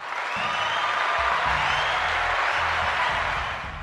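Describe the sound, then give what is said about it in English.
Sustained applause from a large crowd at a show, given for Elon Musk, a dense wash of clapping that holds steady and loud for several seconds before easing slightly at the end. “And I want to give a special Big time applause to Elon Musk.”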